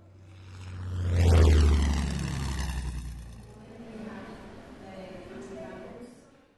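A P-51 Mustang fighter plane roars overhead over Suffolk in 1944, its propeller engine swelling to a loud peak and sliding down in pitch as it passes, then fading into a lingering drone.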